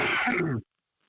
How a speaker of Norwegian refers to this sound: Jeg hosta i albuen, altså. Bare så du vet det.